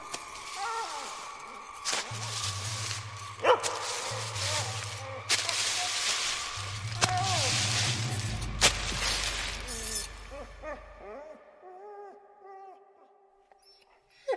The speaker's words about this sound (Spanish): Y lo peor de todo es que el perro empezaba a ladrar furiosamente.